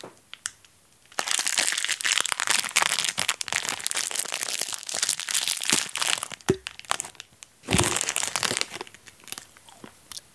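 Loud crinkling of a packet, followed by bursts of crisp crunching as something is eaten, with a short pause between the two stretches and no talking.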